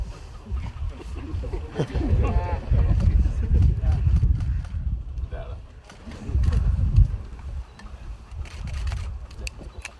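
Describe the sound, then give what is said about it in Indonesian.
A dragon boat drum thumps in a steady rhythm during a dragon boat ride at the Ladongi dam in Southeast Sulawesi, Indonesia, amid outdoor commotion, with people talking and calling out over the beats. “banyak yang ngedram kurang keras”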